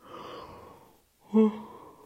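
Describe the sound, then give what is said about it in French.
A breathy yawn: a long drawn-in breath, a brief pause, then a louder voiced groan that trails off slowly. No one speaks. “Je vais faire que bailler, il est tard, j'ai fait beaucoup de choses aujourd'hui.”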